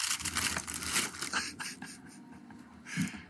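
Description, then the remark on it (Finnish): Crisp rustling and crinkling of a stiff black paper gift bag, made of higher-quality paper, being handled and opened, with bursts of scraping and crackle spread across a few seconds and no speech. “Näyttää jo tässä vaiheessa tällainen musta, hieman kallimmasta paperista tehty paprikassi. Ja arva mitä täällä on.”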